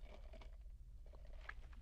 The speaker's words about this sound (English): Sips coffee. Yeah, it's actually pretty good.